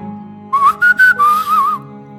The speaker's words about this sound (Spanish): Recuerdo perfectamente todas las tardes en las que él llegaba haciéndose notar a la distancia con un silbido peculiar.